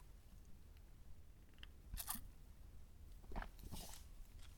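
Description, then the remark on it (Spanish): A couple of quick slurping sips of coffee from a cup, separated by a short pause, with faint cup handling sounds and no talking. “Pausa para trago de café.”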